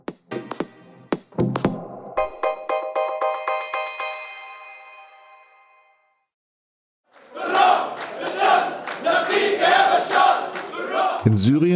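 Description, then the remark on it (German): After a short ringing musical jingle and a pause, a large crowd erupts in loud, continuous cheering and rhythmic chanting, many voices shouting together for several seconds, celebrating President Bashar al-Assad as he casts his vote on Wednesday in Douma, a suburb of Damascus, Syria. “als Bashar al-Assad am Mittwoch in Duma seine Stimme abgibt, feiern Menschen ihren Präsidenten.”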